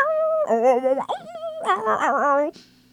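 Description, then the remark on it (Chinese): A small, dark-coated mixed-breed dog whimpers and whines in a few drawn-out, wavering high cries with a sharper yelp-like burst in the middle, fairly loud over a steady low hum, with no one talking. “走失小狗一只杂交品种，毛色发暗。”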